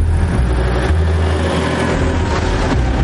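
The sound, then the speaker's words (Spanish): A car engine runs with a loud, steady low rumble, its tone shifting slightly as the vehicle pulls away. No voices are heard. “El coche arranca y Claire saluda a un niño que va por la calle en bicicleta.”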